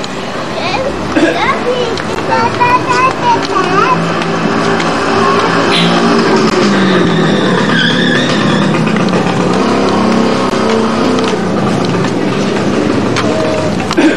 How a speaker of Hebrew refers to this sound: הטוסטוסים האלה עושים הרבה רעש.